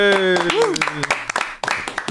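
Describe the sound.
A small group claps in a quick, uneven burst of sharp hand claps for a contestant as game points are announced, with voices cheering and calling out over the start before the clapping carries on alone.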